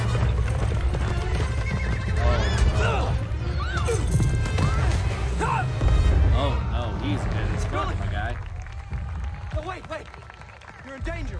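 A white horse whinnies several times over a steady, heavy drumming of galloping hooves and low rumble, loud, fading slightly toward the end.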